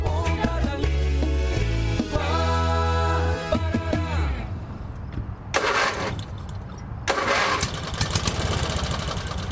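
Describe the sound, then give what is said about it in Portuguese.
A car engine cranks in a loud, rough, rhythmic churning that shifts in pitch but never catches, followed by a pause and harsh, noisy bursts of further failed attempts. No one speaks. “Mas bah, vizinho, eu tô aqui atucanado com meu alto, querendo aproveitar esse fim de bonito e ir à praia. Tomar meus chimas, mas nada dele pegar.”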